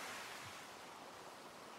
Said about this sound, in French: C'est doux en réalité, parce que le spectacle est rythmé par le bruit des vagues qui s'échouent sur la plage. C'est tout ce qu'on entend, la mer.